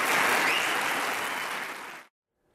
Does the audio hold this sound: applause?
yes